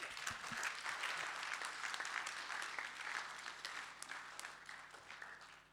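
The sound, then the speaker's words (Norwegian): An audience applauds steadily for several seconds, a dense wash of many hands clapping at an even level that thins slightly toward the end, with no talking over it. “En klapp for”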